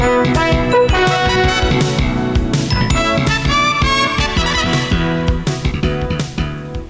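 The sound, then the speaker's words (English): A loud, upbeat school fight song of the Big Sandy Pioneers plays throughout, with bright band instruments and a steady, punchy beat, without any voices over it. “That is the song of the Big Sandy Pioneers who defeated Broadview Lavina in the six man state football championship to take home a state title.”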